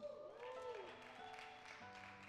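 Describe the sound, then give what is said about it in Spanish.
An audience breaks into steady applause, with a few voices cheering and sustained keyboard tones beneath the clapping. “¿Hay alguien aquí que quiere aplaudir esa visión?”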